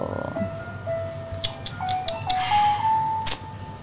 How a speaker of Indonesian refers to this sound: susu murni nasional kedengeran nggak kedengeran jadi kita lagi rekaman di studio tukang susu murni itu lewat